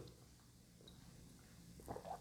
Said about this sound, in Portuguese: Eu vou até tomar um golinho de água aqui para molhar a garganta.